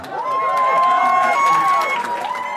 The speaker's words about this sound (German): Ausgelassener Jubel im Hotel Bern.